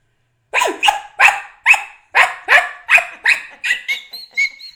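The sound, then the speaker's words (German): A person imitates a dog barking, producing about ten loud vocal barks in a steady rhythm, the last few trailing into higher, thinner yelps. “ich kann mega gut Hund nachmachen”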